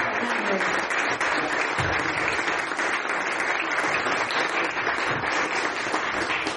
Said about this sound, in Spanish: Y ahora sí, vamos a dar la bienvenida a nuestro invitado de honor de esta noche y recibámoslo con un muy fuerte aplauso,